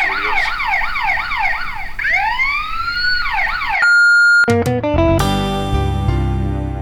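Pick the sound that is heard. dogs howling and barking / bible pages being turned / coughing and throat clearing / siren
siren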